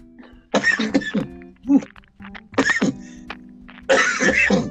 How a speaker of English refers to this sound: it is 420 in my world right now. so forgive me for coughing. that was a good pull.